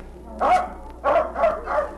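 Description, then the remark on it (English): A trained seal at a stage show barks four times, hoarse honking calls with a short pause after the first and the last three coming in quicker succession. Fairly loud, with no talking. “Hey, get that train seal away from the light.”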